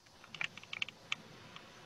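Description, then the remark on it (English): Quick bursts of sharp, clicky keystrokes from an old-school mechanical keyboard that looks like a 1980s keyboard, a cluster of rapid clacks followed by a few scattered taps, fairly quiet with no talking. “I have like an old school, like it looks like a like an '80s keyboard, so it's like extra clicky.”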